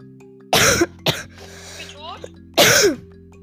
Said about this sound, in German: Bruder, ich habe Husten. Hustreiz. Ich muss mehr trinken.